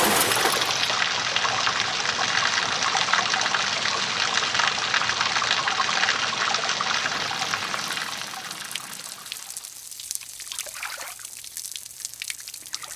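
A loud, steady rush of water gushing from a tipped-over aquarium pours out for several seconds, then thins into trickles and drips as the flow dies away. No one speaks.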